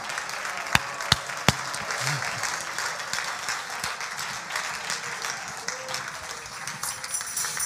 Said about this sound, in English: Clap your hands unto the Lord and love Him right now.